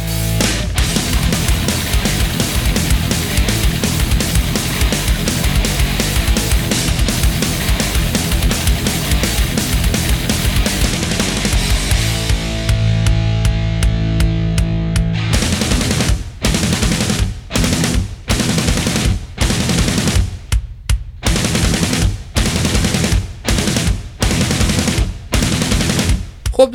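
A loud heavy metal track with dense distorted guitars and pounding drums, which breaks into a tight staccato riff of rapid, machine-gun-like bursts punctuated by abrupt stops. No one talks over it.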